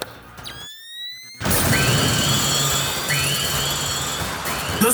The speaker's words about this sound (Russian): Взрывай.